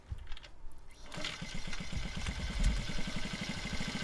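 A Honda Monkey 50 motorcycle engine starts up after a quiet second and keeps running with a rapid, steady low-pitched putter, fairly loud and even throughout.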